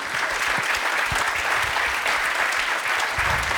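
A steady wash of audience applause, many hands clapping densely and evenly at a fairly loud level throughout, with no voices standing out.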